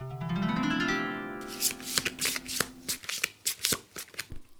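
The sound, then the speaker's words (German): Tarot cards being handled and turned over: a rapid series of crisp, papery flicks and snaps, following a brief rising tonal hum at the start. No one speaks. “Ich drehe dann gleich die nächste Karte um.”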